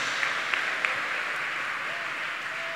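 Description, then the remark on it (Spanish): An audience applauds the Lord: a dense, steady wash of many hands clapping that holds at an even level for the whole three seconds, with a few sharper claps standing out early on. “Demos el aplauso al Señor en esta hora.”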